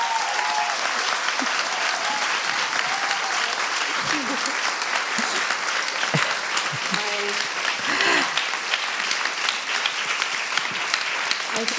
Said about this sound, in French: Je suis tellement reconnaissante et je pense que vous méritez qu'on vous applaudisse très fort.